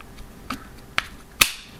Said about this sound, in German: zack, der hat einen Magnetclip. Das finde ich total genial. Also der schnappt da einfach rein und schon ist das Ding drin.